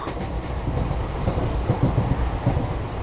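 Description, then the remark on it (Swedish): A train carriage rolls steadily along the rails, a continuous low rumble with faint rhythmic clatter underneath, fairly loud, with no voices. “Men jag undrar vad han tänker på när han sitter där i sin tågvagn.”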